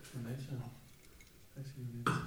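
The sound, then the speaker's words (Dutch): Voices talk briefly, then near the end a single sharp glassy clink rings out as IPA beer glasses knock together while being set out. “We hebben hier wat glazen staan.”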